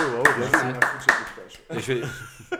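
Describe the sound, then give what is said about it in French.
A few sharp hand claps, about four in a steady rhythm, sound over someone talking, then the speech carries on without further clapping. “Personne n'applaudit oh, Ok, bravo, Merci.”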